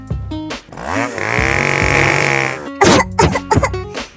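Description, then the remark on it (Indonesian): A smoke-spewing fogging machine, carried by a group of people in the morning, has a small engine that sputters, revs up and drones loudly and steadily for a couple of seconds, then cuts off into a series of sharp coughs. “Ternyata ada sekumpulan manusia yang membawa alat Alat itu mengeluarkan asap yang banyak sekali”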